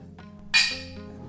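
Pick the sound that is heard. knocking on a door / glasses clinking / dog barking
glasses clinking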